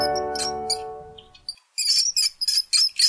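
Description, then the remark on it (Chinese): A mouse squeaks in a quick series of high, thin chirps, about six sharp bursts, after a fading tonal sound at the start. No one speaks. “哦，乖乖，这是老鼠的叫声。”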